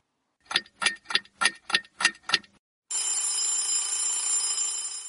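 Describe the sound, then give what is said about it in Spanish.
An alarm clock beeps seven times in a quick, even rhythm, then breaks into a loud, continuous buzzing ring that runs to the end. No one speaks. “Capricornio en el día a día en esa alarma, pip, pi, pip, un lunes por la mañana que te despierta para ir a trabajar.”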